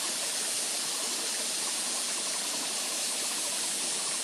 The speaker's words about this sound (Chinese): 那还有水的声音、水流的声音、水滴的声音